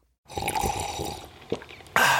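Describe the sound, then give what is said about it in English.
A drawn-out slurping first sip of hot morning coffee, then a brief pause, a small wet click, and a loud, breathy exhale of satisfaction. “That's not just the sound of that first sip of Morning Joe.”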